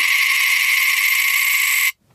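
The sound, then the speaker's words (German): A coin rolls rapidly on a small hand mirror, making a bright, metallic buzzing trill that imitates a wood warbler's song. It holds steady and loud for about two seconds, then stops abruptly. “Also muss dazu, wir haben beide eine Münze und die wir so ausrollen lassen. Ja. Also ich benutze dafür einen kleinen Handspiegel.”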